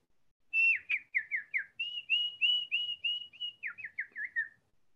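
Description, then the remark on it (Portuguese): Someone whistles a quick, lively birdlike phrase imitating a small bird during a rehearsal in a studio: rapid chirping trills, a few longer sliding notes, then another burst of chirps, clear for about four seconds with no talking. “Eia, entrou-me um passarinho aqui.”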